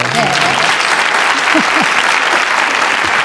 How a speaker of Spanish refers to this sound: Un aplauso.